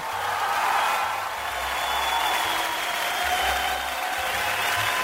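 Steady audience applause fills the whole stretch, a dense, bright wash of many hands clapping at an even loudness with no talking over it.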